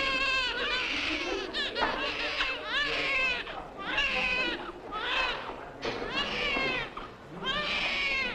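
A newborn baby weighing five pounds twelve ounces (2,600 grams), Louise Brown, the world's first IVF baby, born 26 July 1978, cries loudly in a steady run of about seven wailing bursts, each rising and falling, with only brief catches of breath between them.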